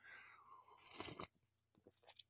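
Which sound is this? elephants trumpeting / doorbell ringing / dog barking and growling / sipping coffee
sipping coffee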